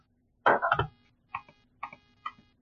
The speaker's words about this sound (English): How's that? It actually sounds like you're clicking a laptop touchpad and not like a boom boom boom, boom.